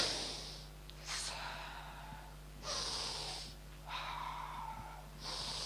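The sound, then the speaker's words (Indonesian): A person imitates the labored, strained gasping breaths of Jesus hanging on the cross, needing to pull up to breathe: four heavy rasping inhales and exhales in a slow rhythm, fairly loud, with no talking. “Dan untuk itu dia perlu nafas itu perlu menarik.”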